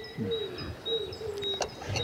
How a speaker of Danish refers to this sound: Og, øh, og man kan høre fuglesang. Det er en, det er en stor have en, en stor græsplæne og fugtig græsplæne